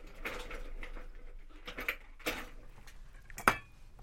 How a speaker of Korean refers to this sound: 새하얀 주방장 복장에 데리다 행성인 요리사가 은접시를 올린 카트를 밀고 왔다.